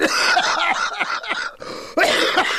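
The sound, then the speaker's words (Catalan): A person coughs hard in a rapid, rasping fit of several harsh bursts after drinking a sweet cognac, breaks off briefly, then lets out another loud cough. “Fa tossir com tots els diars.”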